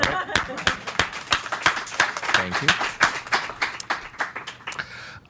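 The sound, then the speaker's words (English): An audience claps their hands steadily throughout, sharp, bright claps repeating in a quick, fairly regular rhythm at moderate loudness, while a voice speaks briefly over the applause. “It just um, has a hand clap.”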